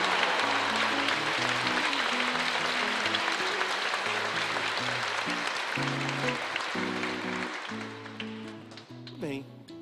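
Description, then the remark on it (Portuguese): A crowd claps steadily for about ten seconds in honour of Our Lady of Fátima, a dense, even wash of applause that fades slightly toward the end, with a simple low melody playing beneath it. “Mais palmas, bem bonito!”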